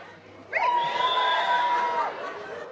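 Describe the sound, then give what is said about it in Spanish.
Audience members from the south whistle loudly together at a live show recording when asked where the people from the south are, a shrill, steady tone of several overlapping whistles held for about a second and a half over a low crowd murmur, then fading. “Sí, chiflaron, ya sé que son del sur.”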